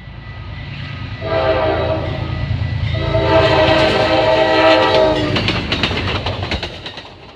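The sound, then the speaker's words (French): An American train rumbles past with a low, steady roar as its horn blows in two long, loud blasts, followed by rhythmic rattling of the cars as it moves on. “Il y a bien longtemps que ce son ne fait plus rêver les Américains.”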